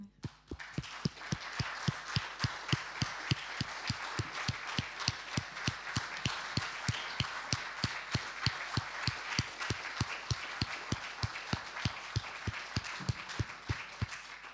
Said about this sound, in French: Oh, je crois qu'on va vous applaudir sur ces mots.